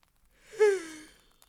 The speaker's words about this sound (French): Ah, en baillant.